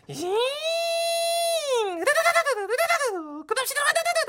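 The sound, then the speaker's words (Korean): A voice imitates an electric power drill used to assemble a bunk bed: a long, steady buzzing hum that rises slightly in pitch, then breaks into wavering, revving bursts before one final surge. “아 나와라 전동 드릴.”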